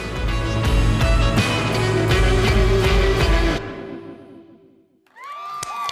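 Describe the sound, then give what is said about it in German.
Loud applause and cheering from a crowd fill the first few seconds, then trail off into quiet before a single voice starts shouting at the end. “Applaus, Applaus, yeah, Applaus.”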